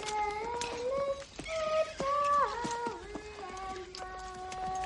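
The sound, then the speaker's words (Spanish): Horse hooves clip-clop in an uneven, unhurried rhythm as Stewart returns on his horse, partly masked by sustained melodic music playing over them. No one speaks. “Días después, Stewart regresa en su caballo.”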